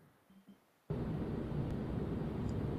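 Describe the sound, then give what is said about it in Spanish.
After a brief quiet moment, a loud, steady roar of engines running at full power abruptly takes over and holds constant and dense, with no voices audible. “Y abre la boca, pero no escuchamos nada, porque lo único que estamos escuchando son los motores a toda potencia.”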